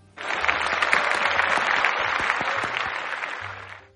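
A crowd claps steadily for a few seconds, a dense burst of many hands that starts abruptly, holds at full strength, then tapers slightly at the end.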